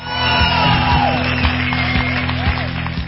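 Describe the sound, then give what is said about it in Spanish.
A recorded applause sound effect played on a radio programme: a dense crowd claps and cheers steadily, with scattered whoops rising above the continuous applause. It sounds loud throughout, with a slightly muffled, canned quality. “No sé si tengo aplausos para ponerte.”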